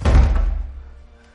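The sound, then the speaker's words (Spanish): A heavy wooden thud as a door is barred shut, a single deep, loud impact with a low rumble that fades over about a second, with no voices. “Alguien está trancando la puerta.”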